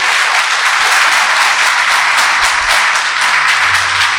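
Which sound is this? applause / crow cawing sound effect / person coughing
applause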